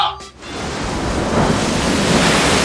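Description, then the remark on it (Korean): Steady roar of winter sea waves washing in on the coast of Gangwon Province, broad and loud, swelling slightly after a brief dip near the start, with a windy, rushing texture throughout and no voices. “야, 이 겨울바다 파도 소리 들리지?”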